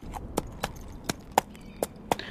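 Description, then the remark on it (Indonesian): Distant hoofbeats from camels and horses ridden by traders in an arid, sandy place with wind blowing, a string of about seven hollow clops in an uneven walking rhythm over a faint background, with no voices. “Dari kejauhan terdengar suara tapak kaki unta dan kuda yang ditunggangi oleh para pedagang.”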